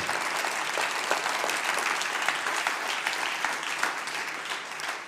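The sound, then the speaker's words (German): A church audience applauds steadily to honor God during a sermon, a dense wash of many hands clapping at an even, fairly loud level for several seconds without any talking. “Komm, lass uns ihm mal einen Applaus geben und ihn ehren.”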